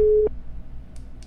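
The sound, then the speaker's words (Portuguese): A steady telephone ringback tone sounds briefly and cuts off, leaving a quiet line hiss with a couple of faint clicks. No one speaks. “Chamando o telefone.”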